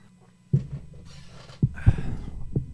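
An old chair creaks and thumps as someone shifts in it: four dull low knocks with faint rustling squeaks between them, with no talking.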